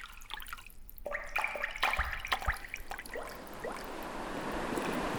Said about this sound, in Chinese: 海浪越来越大，还下起雨来。 哇，这突然的坏天气是怎么回事呢？